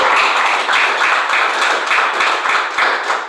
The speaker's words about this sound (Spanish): Denle un aplauso a Cristo Jesús esta mañana. Déselo fuertes aplausos, por favor.